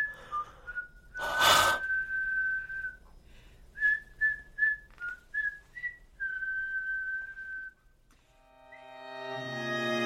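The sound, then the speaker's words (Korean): Someone whistles a simple tune: a long held note, then a run of short separate notes and another long note, with a breathy gust early on and a different tonal sound at the end. “휘파람을 불 줄 몰라.”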